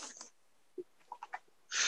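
A harsh, breathy cough blasts into the microphone, followed by a few short soft murmurs, then another loud burst of coughing at the end.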